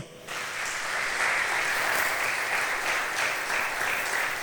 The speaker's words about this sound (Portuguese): Eu quero um aplauso para o Senhor.